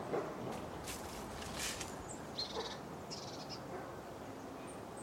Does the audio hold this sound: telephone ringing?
no